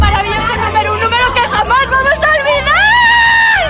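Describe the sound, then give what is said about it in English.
A loud crowd erupts in excited cheering and overlapping chatter as a winner hears her number drawn for the El Gordo lottery top prize, with high-pitched screams and whoops rising above the din, one long shriek swelling near the end. “So there's crowds cheering, people screaming,”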